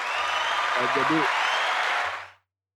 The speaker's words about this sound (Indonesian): uh, suara apa tuh? Ada tepuk tangan, lu ada tepuk tangan sama audiens nih.